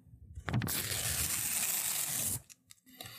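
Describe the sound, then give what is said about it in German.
A small slip of paper, a note written on before the start, is torn in one continuous rip lasting nearly two seconds, a bright, raspy tearing with a crisp start and abrupt end, followed by faint rustling. “Ein Zettelchen zerrissen, das war der Zettel, auf den ich mir vor Beginn draufgeschrieben hatte.”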